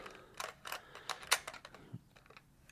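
A prominent screw on the bottom of a recorder is turned by thumbnail with a few scratchy clicks and scrapes, followed by a soft low clack as the little plastic battery door, covering a sled for four AA batteries, lifts open.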